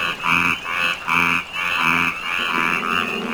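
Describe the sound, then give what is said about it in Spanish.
A Yucatán tree frog calls in a steady series of loud, raspy croaks, about four bursts in quick succession, with no voices present. “La rana de árbol yucateca se encuentra en peligro de extinción debido a la deforestación de las selvas tropicales por usos agrícolas, además de su comercialización como mascota para los niños.”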